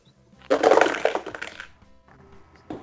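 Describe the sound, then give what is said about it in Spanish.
Four dice rattle and tumble across a hard surface in one loud, clattering roll lasting about a second, then settle, with a last faint knock just after; rolled for a defense roll (agility plus armor) needing 6 or more in a tabletop game. “Tienes que sacar 6 o más con tu, defensa, que era eh, agilidad más armadura. 6 o más. Está chupado, ¿eh? está chupado con 4 dados.”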